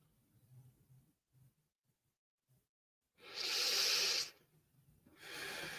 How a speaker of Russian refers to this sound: Медленный глубокий вдох, выдох вниз в тело, в ступни.